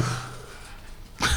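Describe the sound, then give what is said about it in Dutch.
A dog gives a short, abrupt vocalization close to the microphone near the end, after a low hum and a stretch of quiet room tone. “dat is een hond die er even zo'n dag komt zijn.”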